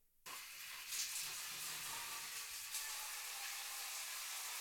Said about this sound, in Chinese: 好，与此同时，我们再尝试把我们的淋浴打开。